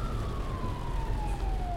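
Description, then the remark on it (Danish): A police car siren wails steadily over the loud rush of the car, with lights, horn and flashers on, driving well over 150 km/h on the motorway near Randers, Denmark, in rush-hour traffic during emergency-driving training; its tone glides slowly downward, with no voices. “Både lys, horn og blink er aktiveret på politibilen mens hastigheden er et godt stykke over 150 km i timen i myldretidstrafikken ved Randers.”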